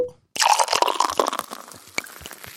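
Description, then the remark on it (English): A wet slurping sip of a drink, with crackly liquid noises and small clicks lasting a couple of seconds after a brief silence. No one speaks. “Actually, let's have a sip because I'm I'm I'm getting pushed because I'm not used to speaking this much by myself, and and my throat is drying up.”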